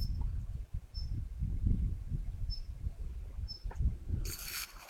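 A Daurian redstart calls after dark, giving short, thin, high-pitched call notes, repeated about four times at uneven intervals over low rumbling background noise, ending with a burst of rustling hiss.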